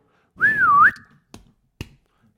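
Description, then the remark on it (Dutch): A whistled stadium chant signal performed alone: a short rising-and-falling whistled phrase, clear, followed by two sharp, evenly spaced hand claps. “dan was er een fluitje. En daar volgden twee klapjes.”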